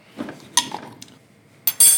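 Metal utensils clink and scrape against dishes in a few sharp bursts as Arabic coffee is brewed on a small gas flame, with a bright ringing clatter near the end and quiet pauses between, no voices.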